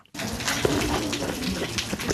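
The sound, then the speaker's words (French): Steady rain pours down in a continuous hiss of water, with a few brighter drips and splashes standing out now and then, and no voices heard, on the first day of school at the Jean 23 vocational high school in Païta, New Caledonia. “Une rentrée sous la pluie au lycée professionnel Jean 23 à Tom Oussad”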